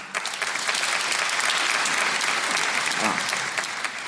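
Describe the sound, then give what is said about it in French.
A crowd in a hall claps steadily for about four seconds, a dense, even wash of many hands with no pauses, fairly loud throughout, with a faint murmur of voices mixed in toward the end. The applause comes from audience members aged 22 or younger, answering a call to show themselves by clapping. “Par applaudissement, qui a 22 ans ou moins dans la salle”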